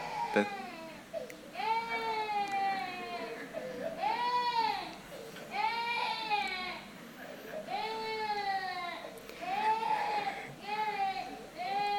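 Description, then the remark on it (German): A small baby boy cries loudly from hunger in repeated rising-and-falling wails, about five long bursts with short gasping breaks between them, continuing steadily throughout, in the early morning between 5 and 6. “Da ist mein kleiner Sohn, der Kleinste, der schreit, weil er Hunger hat.”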